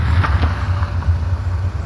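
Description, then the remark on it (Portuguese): A ride-hailing car's engine rumbles low and steady as it arrives at Copacabana Beach, with a couple of faint, brief knocks over the drone, and a car door opens. No one speaks. “Levanta rápido ao vê-la saltar do carro.”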